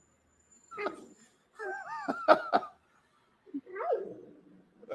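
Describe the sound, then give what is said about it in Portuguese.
A female dog named Cacau growls and grumbles in a few short, rising-and-falling bursts with pauses between them while biting at a person, who laughs briefly. “Até parar de me morder. Já tem umas técnicas de segurar com a calma. Olha o Rosnão.”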